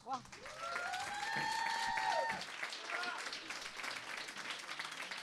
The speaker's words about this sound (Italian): Come andrà la puntata solitamente lo si capisce dall'applauso iniziale e mi sembra che i presupposti sono molto buoni e il sentimento che ha spinto il nostro pubblico ad applaudire così forte è lo stesso che abbiamo noi